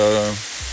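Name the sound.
heavy rain falling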